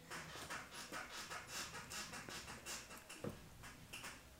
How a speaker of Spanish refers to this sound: ¡Se escucha la silla! Voy a subirla a la silla, espérame la silla tiene ritmo y tiene vida.